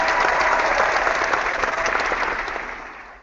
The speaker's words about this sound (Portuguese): Legal, então aplausos para quem participou da meia maratona de Brusque hoje.